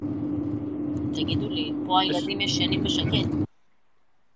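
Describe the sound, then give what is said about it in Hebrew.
A steady, loud low rumble of driving noise inside a moving car, with a constant engine hum beneath a woman talking who is a passenger, not driving, cutting off abruptly near the end. “לא, יש לה קצת רעש כן. של הרכב. אבל זה לא כן, רעש. כן, אני... זה רעש של נסיעה, אבל הוא לא כזה אה, מפריע.”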